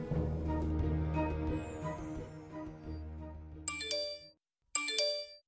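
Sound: phone message notification chimes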